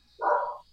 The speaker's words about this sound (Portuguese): Desculpa o cachorro latindo aí, tá?